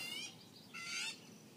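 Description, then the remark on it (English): Birds chirp in the background, two short bursts of high, twittering calls with a brief pause between them, fairly faint, with no one speaking. “are those birds going to be annoying?”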